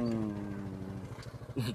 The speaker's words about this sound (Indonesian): Oh, ada motor juga. Ada motor datang.